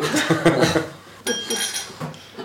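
Glasses of cava clink together in a toast to a successful three-day event, a bright, ringing chime midway through, the tone hanging briefly. Lively chatter and a bit of laughter carry on around it.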